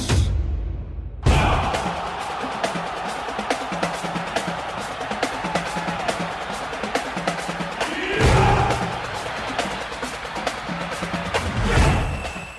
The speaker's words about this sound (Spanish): Aquí estamos de regreso en la Copa al Día y nos vamos hasta Holanda porque está jugando la Supercopa. Ahí ya se escuchan los gritos porque Daniel Reyes está en el estadio.